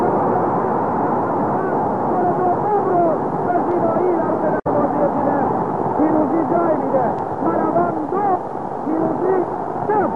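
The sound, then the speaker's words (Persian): A loud, steady roar from a packed stadium crowd at a football match between Pirouzi Tehran and Malavan, as penalty kicks are taken: many overlapping voices, shouts and chants merge into a dense wall of noise. It holds for the whole stretch, with only a split-second dropout midway. “شلوغی اینجا به حدی هستش که مشکلات زیادی رو هم برای ما در امر گزارش مهیا کرده”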